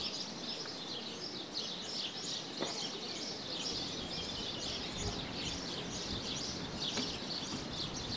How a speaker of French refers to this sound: the sparrows, they are only les moineaux, since 30 years.